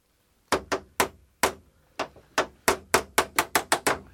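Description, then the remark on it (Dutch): Sharp metallic hammer blows as a carpenter knocks a pin out of a door hinge to open the door of room 10 without damaging the lock, about fifteen strikes, irregular at first, then quickening into a fast steady rhythm. Each hit rings briefly. No voices. “Je moet proberen de pen uit de scharnier te slaan.”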